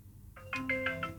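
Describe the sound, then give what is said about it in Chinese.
A phone ringtone plays as a voice call is placed that does not get through: a bright electronic melody of short, evenly spaced tones stepping between pitches, moderately loud over a low background hum, with no voices. “要不现在就打个打个电话给老沙吧”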